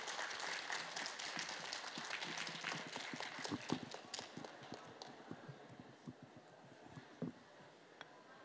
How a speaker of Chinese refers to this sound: 好了，盖上印章，这个作品就正式完成了。好，给掌声。